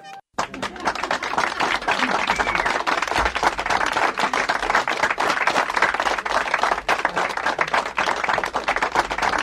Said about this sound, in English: giving a round of applause from Masontown himself, the Masontown Missile, the Mad Dog